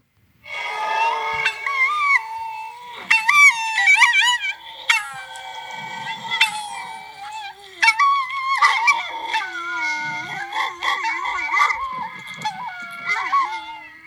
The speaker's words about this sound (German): Ich, ich glaube, das ist ähm, so ein Reaktionsgeräusch von Hunden auf irgendwie sowas Sirenenartiges. Martinshorn oder irgendwie so diese ähm, von der Freiwilligen Feuerwehr